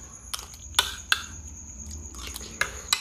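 A spoon clinks against a soup bowl as someone finishes eating soup, in a handful of sharp, bright taps at an uneven pace, with faint scraping in between, no talking, and a steady high tone humming underneath.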